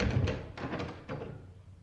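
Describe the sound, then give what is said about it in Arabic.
A door being opened by someone whose knocking went unanswered, with a few dull thunks and rattles spaced about half a second apart, then a short lingering rustle. No one speaks. “عجايب هو ما فيش هنا حد كل ما خبط على باب محدش يرد اما افتح الباب اعمل ايه”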